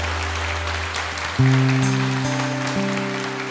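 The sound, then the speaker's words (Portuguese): An audience applauds the Lord after a prayer, a dense, steady wash of clapping that lasts the whole stretch, while sustained keyboard chords swell in and shift a few times underneath. “Quem pode aplaudir o Senhor e dar um glória a Deus por essa palavra?”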